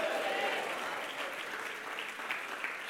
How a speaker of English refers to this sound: I want you to jump to your feet and clap your hands and shout, God is able. Come on, shout, God is able.